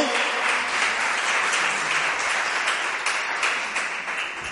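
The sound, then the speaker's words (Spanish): A crowd bursts into sustained applause welcoming a woman being introduced at the front, dense overlapping claps at a steady, loud level for several seconds without letting up. “y que puedas salir aquí al frente porque quiero presentarla y que con nosotros le demos un fuerte aplauso y ahora voy a explicar el por qué.”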